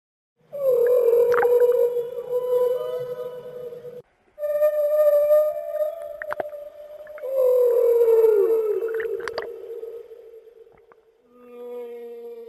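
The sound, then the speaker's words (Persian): Long, sustained whale song with moaning tonal calls that rise and fall, occasional higher squeaks and clicks, heard alone in a few phrases with brief gaps between them. “به زبون ساده تر بخوام بگم میگه موسیقی در دنیای نهنگا چطوری وجود داره”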